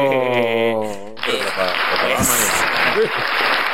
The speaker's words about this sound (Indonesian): Ada tepuk ya sekarang.